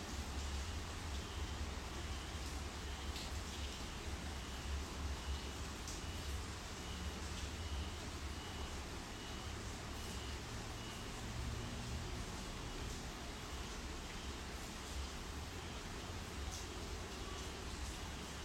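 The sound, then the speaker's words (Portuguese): A steady, soft hiss of rain falling outdoors, continuous and even throughout, with a low rumble underneath and no voices. “Talvez vocês escutem a chuva da onde eu for.”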